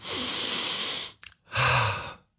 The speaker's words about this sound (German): … atmet tief ein. Es riecht sogar nach Frühling.